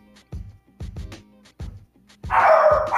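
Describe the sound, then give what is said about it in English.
Dogs bark in a rapid series of short, deep woofs, some close together in pairs, building to louder, overlapping barking at the end. No voices are heard. “The dogs agree on that.”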